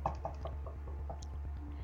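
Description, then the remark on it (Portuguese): A quick series of soft knocks on a door at about four in the morning, several evenly spaced raps that fade after the first few, heard faintly over a steady low background hum. “voltei, deitei e eu ouvi tipo alguém ah, batendo na minha falou. porta.”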